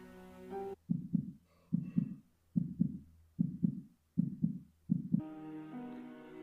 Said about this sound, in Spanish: Transcurrí muchas horas en esa espera, sin poder dormir, escuchando al corazón latir a través de la puerta de mi closet.